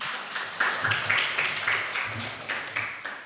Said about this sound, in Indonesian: Coba kita tepuk tangan buat Tuhan dan buat kita semua dulu.